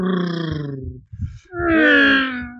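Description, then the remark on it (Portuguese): Someone mimics snoring with their voice: a drawn-out groaning tone, a brief raspy rumble, then another loud, wavering nasal snort, all fairly loud. “eu acho que eu ronquei muito”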